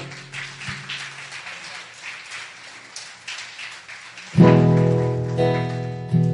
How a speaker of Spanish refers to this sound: porque damos un fuerte aplauso al Señor?